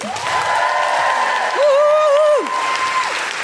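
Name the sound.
audience applause and cheering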